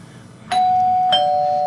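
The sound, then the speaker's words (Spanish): An electronic telephone ringing tone of an outgoing call being dialed starts after a short quiet moment and holds steadily, with a second chime-like pulse partway through, fairly loud and clear, no voices present. “Le están marcando, le están marcando.”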